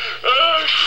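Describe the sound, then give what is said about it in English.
A single loud, voiced sneeze lasting under a second, caused by allergies to flowers, with a strained, tonal "ah" that swells and then bursts. No one speaks. “Gesundheit. allergies.”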